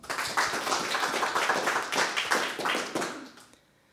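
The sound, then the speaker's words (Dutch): A small audience in Arnhem applauds steadily for a few seconds to welcome an author before her reading, a dense patter of hand claps that fades out abruptly at the end. “Maak een applaus voor”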